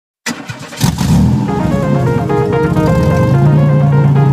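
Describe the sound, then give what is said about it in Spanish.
A car engine bursts to life after a brief silence, roaring loudly and then holding a steady, sustained revving drone with no talking, as the opening theme of the motoring programme Asfalto y Motor. “Evidentemente, tenemos más informaciones, pero antes de esto, vamos a ir con la cabecera del programa.”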